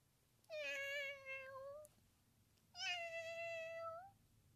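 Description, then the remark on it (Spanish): A person imitates a cat, meowing at a real cat at a countryside gathering, with two drawn-out meows, each lasting over a second and separated by a brief pause. The meows are clear, with no talking and little background noise. “Y yo maullo.”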